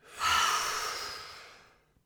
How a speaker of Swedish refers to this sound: Ska vi ta ett djupt andetag tillsammans? Ja, vi får nästan göra det. Ja. Vi andas in. Håll. Och släpp.